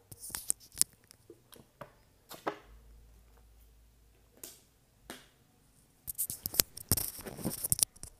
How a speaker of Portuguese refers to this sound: Vou beber uma água aqui rapidinho.